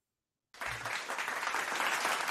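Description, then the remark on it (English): Applause erupts after a brief silence, a dense, steady wash of many hands clapping that holds strong and even to the end. “But before I do that, another round of applause for.”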